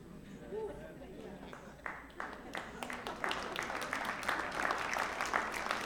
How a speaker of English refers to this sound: The youth pastor just started that clap. I love it.